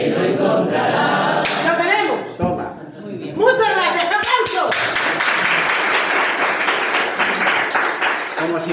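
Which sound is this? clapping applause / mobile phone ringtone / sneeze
clapping applause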